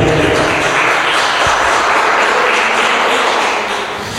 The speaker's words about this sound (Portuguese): Se você recebe, dê um lindo aplauso ao Senhor e diga amém.